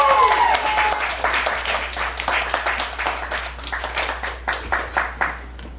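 An audience breaks into steady applause, many hands clapping densely at first, then thinning into scattered, separate claps as it fades over several seconds, with no voices over it.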